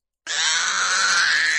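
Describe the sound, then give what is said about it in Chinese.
A loud, sustained infant wail bursts in abruptly after a brief silence and holds at a steady, piercing high pitch without pause. No one speaks. “就在我们几个害怕的要死的时候，突然一声很大的啼哭声，把我们的注意力吸引了过去。”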